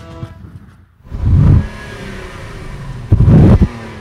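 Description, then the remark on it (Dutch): A luxury limousine's engine, the car with stars on its hood, revs twice in close succession, each burst swelling loud and low before dropping back to a quieter idle rumble, with no talking. “Uh, luxe limousine en eh, ja, de sterren op de motorkap.”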